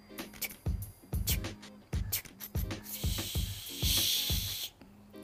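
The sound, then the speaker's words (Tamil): A voice mimics a train chugging in steady rhythmic puffs that slow down, then lets out a long, loud breathy hiss as it comes to a stop. “அப்படின்னு பெரிய மூச்சு விட்டுண்டு அந்த ட்ரெயின் நின்றுது”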